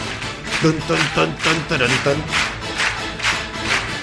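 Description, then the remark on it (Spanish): A TV show's studio audience claps and cheers loudly over a pulsing techno (maquineta) theme, with bursts of shouting voices riding the steady, driving beat throughout. “y la gente aplaudiendo. La verdad es que el público de ese programa se volvía loco.”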